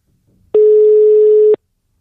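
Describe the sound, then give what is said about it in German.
A single steady telephone tone sounds for about a second as a call is dialed out, loud, starting and stopping abruptly, with brief faint rustling just before it. “Ja, ich glaube, wir rufen ihn an, oder? Rufen wir gleich an.”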